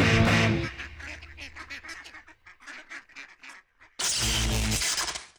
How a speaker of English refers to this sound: Quack, quack.